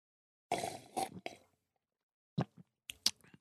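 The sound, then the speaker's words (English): Wet slurps of hot coffee made in a Chemex: a cluster of three noisy sips, a pause, then a few shorter sips and lip smacks. No talking. “me, tell me, tell me what you you, you want slurping sound effects.”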